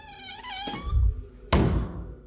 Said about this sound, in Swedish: När vi våren 2023 besöker hotellet kan vi konstatera att dörren fortfarande inte klickar igen ordentligt